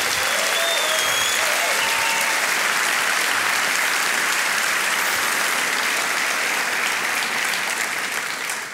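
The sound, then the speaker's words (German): Steady, sustained audience applause for Markus Fiedler, author of the film Die dunkle Seite der Wikipedia: a dense wash of many hands clapping at an even loudness throughout, with a few faint whistles or calls near the start and a slight fade at the end. “Ein Applaus für Markus Fiedler.”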